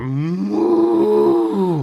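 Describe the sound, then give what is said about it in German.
A human voice imitates an angry cow's bellow, voicing the cow Dolores: a single loud, sustained, deep roaring moo lasting nearly two seconds with a rough, strained tone, alone. “brüllte Dolores los.”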